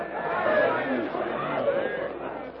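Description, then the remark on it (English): A dense crowd of voices shouts and clamors all at once, a loud, steady wall of overlapping yelling with no single voice standing out: an angry mob yelling and crowding around four captives. “Yelling and gesticulating savagely, the yellow skinned mob crowds around the four captives.”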